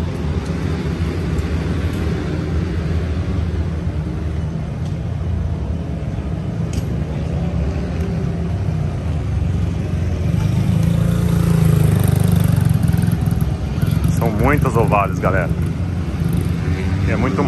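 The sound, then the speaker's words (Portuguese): Motorcycle engines of young riders drone steadily in a racing paddock, growing louder midway, then several sharp revs rise and fall in pitch near the end, with indistinct voices faintly in the background. “massa ver essa molecada aí toda acelerando.”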